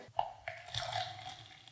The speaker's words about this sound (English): in the third cup, you're going to first put in some water.